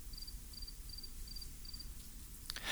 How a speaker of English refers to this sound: This evening, the sweet crickets sing and sing, even as the wind rises